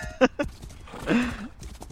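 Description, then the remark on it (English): A couple of sharp horse-hoof clops land close together near the start, followed by a short muffled vocal sound and quieter background noise. “He's like riding on a on a rail yeah. with his with the horse hooves,”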